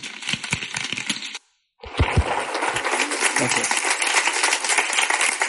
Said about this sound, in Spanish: Así que quiero que deis un aplauso muy fuerte y que mantengáis unas una media hora, ¿es? Más o menos, 40 minutos más o menos